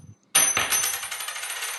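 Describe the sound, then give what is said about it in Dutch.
A coin flipped to decide a yes-or-no question lands with a sharp metallic clink, then rings and rattles as it spins and settles on a hard surface, fairly loud, with no voices. “Oh, nou, de munt zegt nee.”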